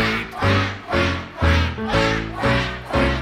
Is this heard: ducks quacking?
yes